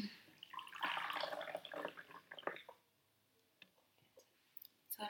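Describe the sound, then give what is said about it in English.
Tea pours into cups in a steady splashing stream for about two seconds, then stops, followed by a few soft clinks and drips, fairly quiet, with no talking. “Should we pour our tea before yeah.”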